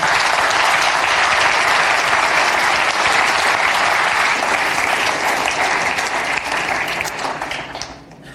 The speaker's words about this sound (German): Ja, gebt doch einen Applaus den zwei.